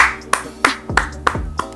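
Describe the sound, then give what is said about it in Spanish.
Five crisp hand claps land in a steady, even rhythm, each a sharp, loud slap over a low, sustained hum in the background. “Señores, eh, a todo aquel que ha pasado por esto, a todo aquel que, ha tenido su inicio, que ha tenido su comienzo, en, otras palabras, yo le, quiero dar un aplauso,”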